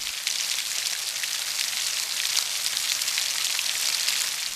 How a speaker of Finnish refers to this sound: Tänään ei missään pala, tänään sataa.